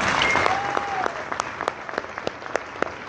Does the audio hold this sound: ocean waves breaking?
no